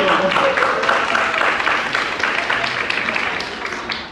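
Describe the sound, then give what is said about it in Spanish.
An audience applauds its executive ambassadors: many hands clapping in a dense, steady roar that stays loud throughout and eases slightly toward the end, with no voices heard over it. “Un aplauso para nuestros embajadores ejecutivos.”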